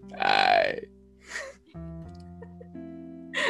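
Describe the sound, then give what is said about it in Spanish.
A single loud, low-pitched guttural sound, a sensual noise made in the lowest register of a person's throat, rumbles out, followed by soft breathy exhales over a faint, steady background hum. “Así como ese sonido medio sensual que hace la gente, yo lo hago a veces con el, registro más grave en mi garganta, que lo estoy usando ahora por el silencio, y lo hice.”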